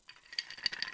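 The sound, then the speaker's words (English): Ice cubes rattle and clink against a glass as a sound effect, in a quick, uneven flurry of bright little clicks, fairly soft, with no voices. “All right, as you can hear the um, ice cubes rumbling in the background, that's just a sound effect.”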